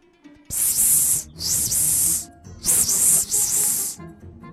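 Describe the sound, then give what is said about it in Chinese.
Four loud, sustained hisses of a little snake saying good night in a bedtime story come in two pairs, each a steady breathy rush of high-pitched air lasting under a second, with short pauses between them and no talking. “小蛇也要和我们说晚安呢，你要不要和小蛇说晚安呢？”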